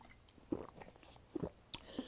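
Someone takes a quiet sip of a drink, with a few soft, wet mouth clicks and swallows spread over a couple of seconds, no talking.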